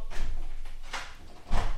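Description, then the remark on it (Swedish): A door shuts with a muffled thud as someone leaves, preceded by a lighter knock or rattle and followed by a second heavier bump, against a quiet background. “Där, där gick han.”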